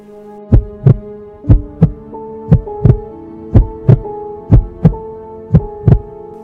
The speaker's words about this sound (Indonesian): Jantungku kembali berpacu cepat.